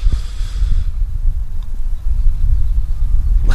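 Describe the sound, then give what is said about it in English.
Heavy wind buffeting the microphone outdoors on a cold day, a continuous low rumble with irregular gusty surges and thumps, loud throughout with no voices. “and it's windy as well.”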